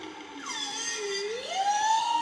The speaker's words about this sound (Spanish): Ballena boreal. ¿Solo ballena? Solo.